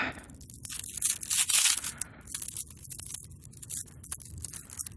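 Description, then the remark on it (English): Continuous crinkling and rustling of a plastic bag being torn open with teeth, with a louder ripping burst early on followed by irregular crackles and scrapes, no voices. “Opens a Plastic Bag with His Teeth”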